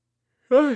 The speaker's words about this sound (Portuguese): Foi mal bocejo. Inclusive, os caras estão me criticando aí que de vez em quando eu dou umas bocejadas. Eu tô cansado, galera. Foi mal.